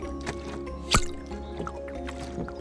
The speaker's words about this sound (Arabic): وكما تمتص قطعة الإسفنج الماء شرب أشعب ما في القربة دفعة واحدة دون توقف كان المشهد عجيبا بحق